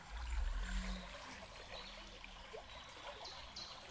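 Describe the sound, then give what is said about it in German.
A stream flows steadily with a continuous bubbling, trickling wash, a low rumble swelling briefly at the start and small splashy gurgles scattered throughout, no voices present. “hörst du die Geräusche und lässt immer mehr und mehr das Element Wasser zu dir.”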